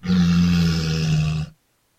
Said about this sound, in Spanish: Mira, gruñó la señora Morsa.